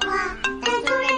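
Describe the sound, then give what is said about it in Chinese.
A mobile phone rings with a bright, melodic electronic tone: sustained harmonic notes broken by a few rhythmic pulses, fairly loud and steady, with no voices. “哎哎，抱歉抱歉，我先接个电话。”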